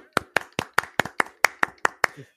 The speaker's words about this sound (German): und der heißt wir wieder herzlich willkommen mit einem tobenden Applaus.